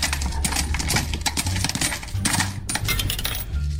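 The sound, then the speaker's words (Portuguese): A steady, dense metallic clatter of many 50-escudo coins dropping and clinking together, loud, with rapid overlapping jingles throughout and no voices. “Portanto, era uma bela quantia e em trocos, porque o roubo foi feito em moedas de 50 escudos.”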